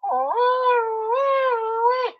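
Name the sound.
voice imitating a siren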